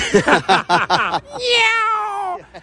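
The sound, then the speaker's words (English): A person talks briefly, then lets out a long, drawn-out imitation of a cat's meow, held for about a second with a gently falling pitch, loud. “And did you meow? Yeah, of course, I meowed.”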